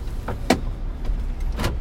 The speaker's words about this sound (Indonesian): Oke, okay, podcast kita hari ini sore ini perbincangan di Motor dalam mobil, podcast mobil. Namanya podcast Bill. Podcast di dalam mobil.